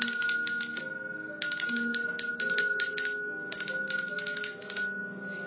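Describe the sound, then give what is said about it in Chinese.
An alarm clock rings with a rapid, high metallic bell clatter in three bursts separated by brief pauses, loud and steady, with no voices. “然后又出现了一个闹钟，那是他该出门的闹钟。”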